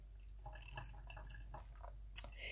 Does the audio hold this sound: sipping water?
yes